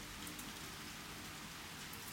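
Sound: rain falling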